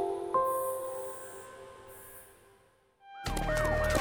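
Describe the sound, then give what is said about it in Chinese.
More than ten maglev ambulances arrive at the venue within five minutes: a steady electronic tone fades away, then a loud burst of wailing, rising and falling siren sounds with a rumbling engine bursts in near the end. No one speaks. “十几辆磁悬浮救护车在五分钟之内就到达了场馆”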